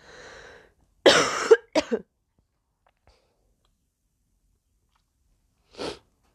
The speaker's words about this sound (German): Entschuldigung, jetzt muss ich mal husten.